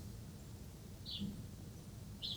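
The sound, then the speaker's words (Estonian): A small bird behind a window chirps twice, a second or so apart, short bright calls heard faintly over a low, steady background hum with no one talking. “oi, mingi linduke on akna nagu taga. ma just tahtsin öelda, et nii kõvasti siis jutsub.”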